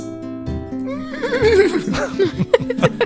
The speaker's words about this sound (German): Gib mir eine Orange und ein gestreiftes Zebra, eine Melone und ein Pferd.